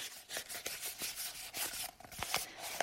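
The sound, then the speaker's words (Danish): Paper being rolled up, a steady dry rustling with irregular little crackles and crinkles over about three seconds, with no voices. “Det her er lyden af papir, der rulles sammen.”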